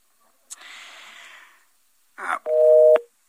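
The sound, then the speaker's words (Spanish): A phone call from a radio broadcast in Mexico to a correspondent in Monterrey, Nuevo León, drops: a hiss of open line noise and a brief crackle, then a single loud, steady busy-tone beep lasting about half a second before it cuts off. “Ah, no, se, creo que se cortó. Bueno, le volvemos a marcar, ¿no?”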